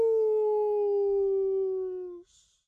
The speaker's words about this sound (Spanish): A veces la llorona hace un largo aullido.